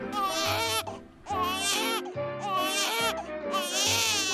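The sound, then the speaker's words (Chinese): A cartoon baby piglet lies on the floor and wails loudly in four long, shrill bursts. The high, wavering cries are broken by short gasping pauses. “没想到，没想到，竟然是一个小猪猪 baby 在地上嚎啕大哭哎。”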